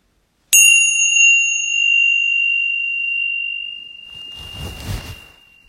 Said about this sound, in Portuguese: A gente ficou um período em silêncio, agora eu vou fazer o sino soar uma vez para a gente terminar o período formal de meditação.